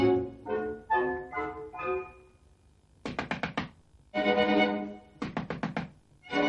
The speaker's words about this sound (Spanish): Blancanieves se dirige a la puerta y llama.